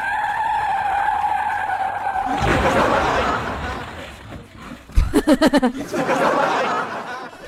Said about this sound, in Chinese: 当时司机突然一个吱嘎加急刹车，我差点没驾崩过去。